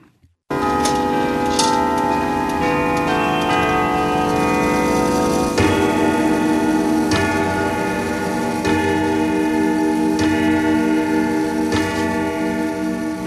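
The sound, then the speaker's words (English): A clock ticks at a slow, steady pace over a dense bed of sustained, ringing musical tones, the ticks sharp and evenly spaced throughout, with no one speaking. “So today we learn what keeps your clock ticking.”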